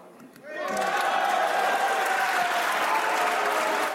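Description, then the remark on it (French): Sustained applause from the opposition in a reverberant parliamentary chamber as deputies vote to suspend the debate; it swells up after a brief quiet start and holds steady, mixed with some raised voices and cheering. “Les députés votent la suspension des discussions sous les applaudissements de l'opposition.”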